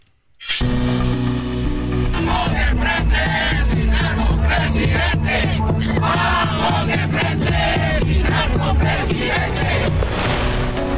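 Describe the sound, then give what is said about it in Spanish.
A large crowd of more than a thousand protesters marching in Mexico City in defense of democracy chants and shouts loudly and continuously, "voto libre" and "el INE no se toca", voices massed together in a dense, rhythmic roar that starts abruptly and carries on steadily and full throughout. “más de mil ciudadanos vestidos de blanco y rosa marcharon en defensa de la democracia en la capital del país al grito de voto libre y el INE no se toca.”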